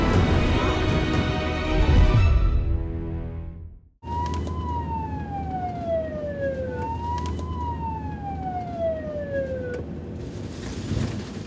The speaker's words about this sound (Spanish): Una ambulancia regresando del frente. A bordo, un soldado con una bala en el abdomen.